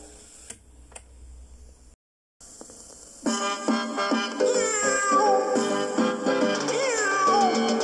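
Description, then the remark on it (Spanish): After faint ticking and a brief silence, a cat meows loudly and repeatedly, the drawn-out, rising and falling meows coming in a steady, almost sing-song rhythm. “es la salsa de Fortunato, el gato que vive en el tejado”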